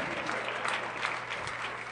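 An audience claps steadily for about two seconds, a moderately loud, even wash of applause that sounds somewhat thin rather than a full ovation, with no voices standing out.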